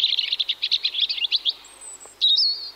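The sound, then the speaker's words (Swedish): A European robin sings: a rapid series of bright, high chirping notes for about a second and a half, a brief pause, then a thin, sweet warbling phrase. No voices. “Det finns eh, mycket romantik och lore kopplad till rödhaken.”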